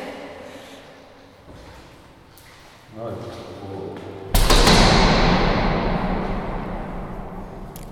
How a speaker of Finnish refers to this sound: Ovi lämähti. Tännekö jäätiin? Tänne jäätiin. Hienosti kaikuu. Se on 14 sekuntia, mitä tämä kaiku kestää.